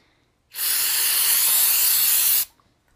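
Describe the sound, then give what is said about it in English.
A single steady spray hisses from a small bottle of marijuana mouth spray for about two seconds, loud, starting and stopping abruptly, with near silence before and after and no talking. “It's like spray. oh my gosh, it's like spray marijuana.”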